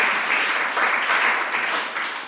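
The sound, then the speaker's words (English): A crowd at a fundraiser for California Latinas for reproductive justice breaks into sustained, loud applause, dense clapping with cheers mixed in, holding steady for a couple of seconds before easing slightly at the end. “Let them hear it, man.”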